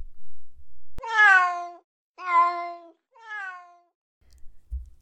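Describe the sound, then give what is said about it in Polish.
A cat meows three times in succession, each call long and drawn out, the last one softer and shorter, with no talking. “Kota nie można wytresować, ale można się nauczyć żyć z nim względnie w zgodzie.”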